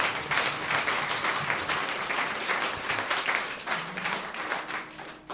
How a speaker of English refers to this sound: It was a piece of a master. A round of applause for the work.